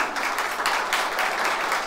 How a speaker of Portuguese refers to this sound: Fique de pé e dê uma salva de palmas para o Senhor, bem forte. Se você crê nisso, aleluia.